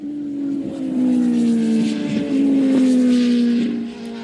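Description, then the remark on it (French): A motorcycle engine drones steadily while riding, its pitch dipping and rising slightly as the throttle shifts, with rushing wind noise over it throughout. No one speaks. “Allez, let's go moto.”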